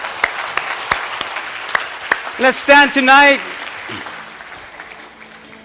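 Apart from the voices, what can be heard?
audience applause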